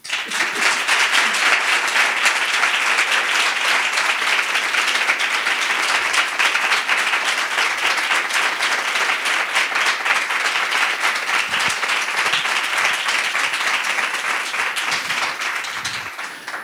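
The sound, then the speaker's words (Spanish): An audience at the Ámbito Cultural in Callao applauds loudly and steadily for about seventeen seconds to welcome guest Rodrigo Cortés, a dense wash of many hands clapping at once with no voices, easing only slightly at the very end. “Y por eso vamos a tener este pedazo de aplauso a la altura del invitado, porque hoy, ni más ni menos que aquí en el ámbito cultural de Callao, recibimos a Rodrigo Cortés.”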